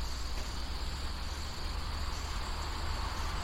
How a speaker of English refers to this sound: Like that car that's driving by. you might be able to hear, in addition to that, the crickets in the background. And we are. some birdies. Yeah, we are on the front porch.